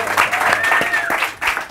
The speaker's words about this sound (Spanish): Estamos en One PM, en las oficinas aquí. Un aplauso, un aplauso para One PM.